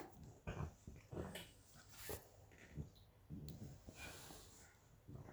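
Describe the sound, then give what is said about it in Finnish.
A dog rummages through and destroys stuff: irregular bursts of rustling and scraping mixed with snorts, sniffing and a brief low growl, with no one talking. “Älä ko- koira tuhoaa äh, kamaa, niin, niin joo.”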